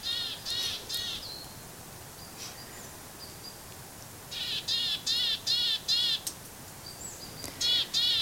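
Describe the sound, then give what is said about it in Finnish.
Birds at a feeder in a forest give harsh, raspy calls in quick repeated bursts, a short cluster at the start, a longer run of about six midway, then two more at the end. A steady background hiss runs beneath. “Että mä kävin aika paljon polttopuita keräämässä ja sitten jos huomas näitä lintuja täällä, niin ajattelin, että olisi vaan kiva joskus tulla ja istuskelee”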